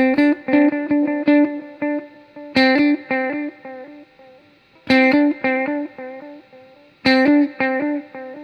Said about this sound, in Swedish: Det här är så långt delay-tid man kan få. Och då, man hör också när man sänker drum speed så tappar man lite grann toppen. Då kan man kompensera det här med tonkontrollen för att få tillbaka lite grann.